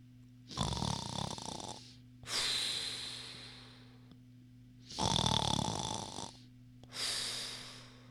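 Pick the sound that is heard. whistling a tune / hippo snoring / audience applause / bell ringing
hippo snoring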